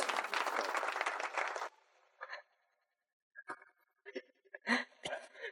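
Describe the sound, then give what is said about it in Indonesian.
A short burst of loud crowd applause, a sound effect applauding Bu Risma, that cuts off abruptly after about a second and a half, followed by quiet gaps and a few scattered sounds. “Bu Risma diapresiasi oleh efek.”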